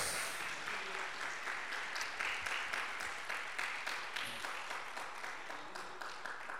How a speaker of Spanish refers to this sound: Un aplauso para todos los que están allá conectados.